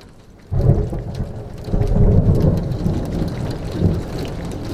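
Steady, heavy rain falls on a Sunday after a brief quiet start, a dense patter of drops over a deep low rumble like thunder, continuing unbroken to the end.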